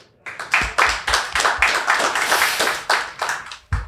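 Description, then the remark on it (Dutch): An audience in a hall claps in a steady, rhythmic beat, about three sharp claps per second over a continuous wash of hand noise, welcoming guest Mart Smeets. The applause stays loud throughout, with no voices. “Mag ik jullie introduceren en een applaus van de zaal vragen voor mijn gast van vandaag, Mart Smeets.”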